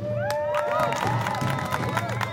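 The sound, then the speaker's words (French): A crowd cheers steadily for the favoured competitors of a race, with high excited whoops and shouts rising and falling over a dense bed of scattered clapping, loud and continuous throughout. “Applaudissez-les, mesdames et messieurs.”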